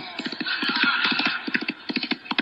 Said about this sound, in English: Whoa! Yeah! Oh, come on, horse. Whoa!